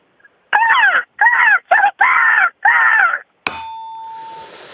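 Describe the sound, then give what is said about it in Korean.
A person does a voice impression of an ill-tempered crow: five loud, harsh, drawn-out caws in quick succession, each raspy and strained. A sharp metallic clang rings out right after. “예, 성격 더러운 까, 까마귀 한번 해보겠습니다.”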